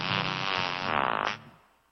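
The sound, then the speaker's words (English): A loud, buzzy cartoon fart sound effect from Family Guy blares for over a second, rasping and fluttering toward the end before cutting off and fading quickly. No talking. “The Family Guy just really loves farts.”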